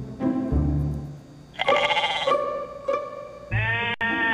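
A female goat bleats repeatedly and loudly, several long, wavering calls in succession with short pauses between them, no voices present.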